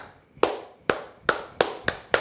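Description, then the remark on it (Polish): A single man claps six times, sharp, with a short pause after the first clap before the rest settle into a steady rhythm. He is standing at the office door as his father leaves the office where he worked for 40 years, for the last time. No one talks. “klaszcze. Myśli, że najpierw to jest jakiś, wariat.”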